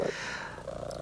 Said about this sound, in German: Das laute Rasseln, was ihr jetzt gerade hört, ist meine Katze, die sich auf meinem Schoß gemütlich gemacht hat.